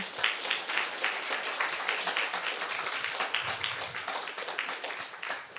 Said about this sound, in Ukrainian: Оплески.